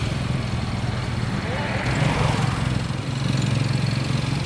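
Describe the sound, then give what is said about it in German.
A small motorcycle-rickshaw taxi engine runs steadily while passengers ride in it, a motorcycle with a homemade metal sidecar seating three; its low, buzzing drone rises slightly midway, with some road noise throughout. “So, jetzt fahren wir mit einem Betschak, einem äh, Rikscha-Moped-Taxi, ja.”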